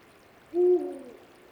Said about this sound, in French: Je suis réveillé par le chant du hibou grand-duc qui revient de chasse. Pendant cinq minutes, il va chanter et signaler sa présence à la femelle qui est sur l'air.